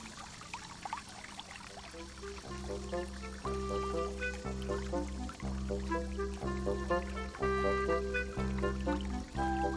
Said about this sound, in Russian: Он исходит от ручья, протекающего через густой лес.